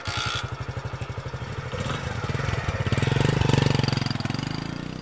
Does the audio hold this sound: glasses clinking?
no